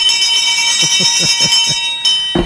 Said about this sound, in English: This untuned bell.